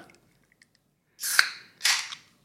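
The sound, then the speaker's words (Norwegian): A glass cola bottle is opened: a sharp pop with a burst of fizzy hiss, then a second short gush of carbonation, with no talking. “Det er ikke en pils. Det er en eh, cola. Og det er flere cola, glasscola her som jeg foretrekker, da.”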